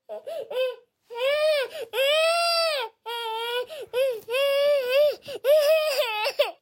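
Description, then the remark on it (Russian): A young child cries and whines, a string of loud, drawn-out wavering wails broken by short sobbing catches and brief pauses, with no other voices. “Ребенок просит, требует, ноет, пытается договориться, плачет, бросается на пол и стучит ногами.”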